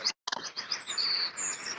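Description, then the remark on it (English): Birds chirp outdoors in the countryside, a string of high, bright tweets and trills coming steadily over a quiet background, with no voices. “A bird or two”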